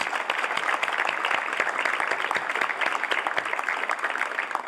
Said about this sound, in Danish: Og vi skal simpelthen give dem en stor klapsalme, fordi de gjorde en kæmpe indsats.